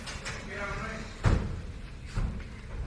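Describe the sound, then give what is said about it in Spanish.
A heavy metal bullpen gate bolt clunks open in two solid knocks about a second apart at a bullring, opening to release the sixth bull, over a low background murmur of voices. “Ahí se abre el cerrojo.”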